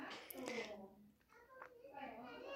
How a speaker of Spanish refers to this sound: Creo que yo terminaré acá porque seguiré grabando los gritos de la chiqui al fondo, así que los veré hasta el siguiente episodio.